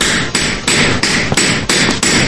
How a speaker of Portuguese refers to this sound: Alguns devem ter quebrado mil com marteladas, né? De raiva.